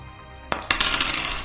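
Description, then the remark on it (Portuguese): Dice rolled across a hard surface: two sharp clacks followed by a quick, bright rattle of small tumbling hits that fades out, with no talking. “Eu rodo mais um dado, né, mestre?”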